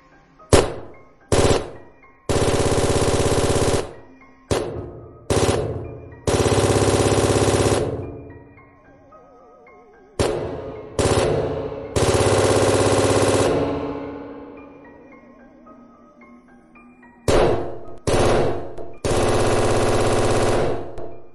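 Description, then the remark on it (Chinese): Loud automatic rifle fire from an X7 rifle, shot in bursts at the wall dividing a great hall, in three rounds: short sharp pops leading into long sustained rattling volleys, each trailing off with a ringing decay between groups. No voices. “当时胖子浑身的汗毛都竖了起来，看着被干尸挡住的出口，把心一横，一把抢过身边马仔的 X 七，对准隔开大殿的墙壁就是一梭子。”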